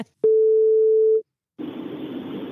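A telephone ringing tone as a radio host places a call to a guest: a click, then one steady, clear tone lasting about a second, a short silence, and then a soft rush of line noise.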